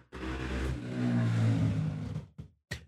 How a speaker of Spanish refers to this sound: Moto. Moto bien. Eh, pero además tenés una pizzería cerca, eso explica por qué el, ir y venir de motos.